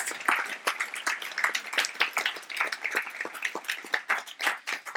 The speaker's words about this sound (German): Und auch danke ganz besonders an alle, die sich bei unseren Kleinsten engagiert haben, damit unsere Kindergottesdienstmitarbeiter mal durchschnaufen konnten. So, und dieser Applaus für all das, der gehört jetzt euch, wenn du dabei warst.